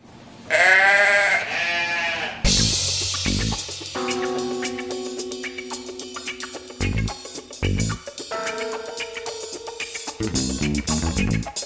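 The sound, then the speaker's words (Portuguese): A single loud, wavering goat bleat rings out for about two seconds, then gives way to rhythmic music with heavy drums and sustained tones. “É, nem, nenhum bode foi ferido durante a gravação desse podcast.”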